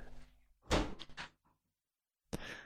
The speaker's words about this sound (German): Äh, warte, ich mache mal ganz kurz die Tür auf, weil meine Freundin macht die Tür nicht auf. Warte.